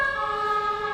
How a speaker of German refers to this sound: das ist die Feuerwehr.